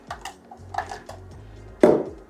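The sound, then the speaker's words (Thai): Pieces of about one pre-cut avocado drop into a container for an oil-free avocado salad dressing, with a few soft knocks and clinks, ending in one louder, heavier thud near the end. No one speaks. “อันดับแรกเนี่ยเราก่อนเลยเนี่ยนะฮะเราใส่อะโวคาโดหนึ่งลูกซึ่งนี่ทีมงานเขาก็ได้เตรียมการหั่นไว้ให้แล้วนะฮะก็จะได้ง่ายนะครับอาโคาโดประมาณ 1 ลูกนะครับใส่ลงไปเลยนะฮะ”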